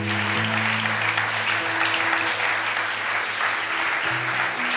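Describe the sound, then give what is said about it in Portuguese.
An audience applauds Jesus steadily, a dense wash of many hands clapping at an even loudness throughout, with sustained low organ or keyboard tones holding underneath. “Pode aplaudir Jesus.”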